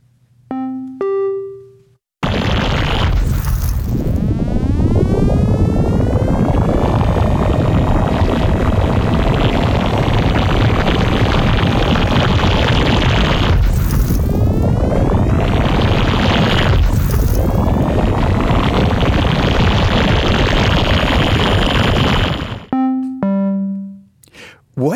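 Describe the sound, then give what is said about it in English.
Sonified volcano data: a dense, continuous electronic wash of sweeping tones, broken by three loud booms marking the volcano's eruptions in 1998, 2011 and 2015, one early and two later close together. Short synthetic beeps, designed to signal the start and end, open and close it. “rises in response uh, to, to, to that pressure, and then there's a boom that I think is self-explanatory that marks the the volcano's eruptions in 1998 and 2011 and in 2015.”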